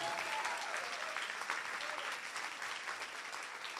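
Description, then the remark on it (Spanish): A large church audience claps loudly and steadily for several seconds, a dense, continuous wash of applause without pause, given as loud applause to Jesus during a sermon. “Y ahora si lo viste, dale un grito de victoria. Dale un aplauso fuerte a Jesús.”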